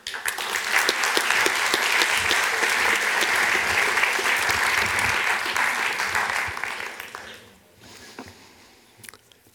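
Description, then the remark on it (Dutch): An audience at a livestreamed evening lecture applauds steadily for about seven seconds to welcome speaker Paul van Tongeren, a dense wash of many hands clapping, then the clapping thins out and fades to a few scattered claps. “Ehm, dan vraag ik graag een hartelijk applaus voor u voor Paul van Tongeren.”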